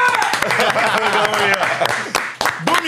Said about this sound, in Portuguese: palmas pro cara